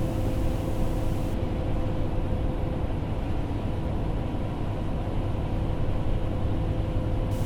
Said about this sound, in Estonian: ma olen praegu bussis ja sõidan ühe linna poole.